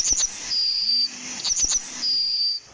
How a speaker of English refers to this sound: his teacher had nothing more fateful in mind than a bird call from a kind of sparrow, a yellowhammer.